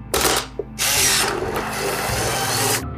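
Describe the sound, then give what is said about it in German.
An instant camera's motor whirs loudly as it pushes the just-exposed photo out through two rollers: a short buzzing burst, a brief pause, then a longer steady mechanical whir that stops abruptly. “Ausgelöst wurde dieser Prozess, indem das Foto unmittelbar nach seiner Belichtung in der Kamera durch zwei Walzen gepresst wurde und die Kamera verließ.”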